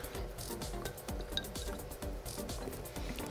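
A single quick clink of glasses during a toast rings out midway through, set against soft handling noises and a low, uneven rumble; no one speaks.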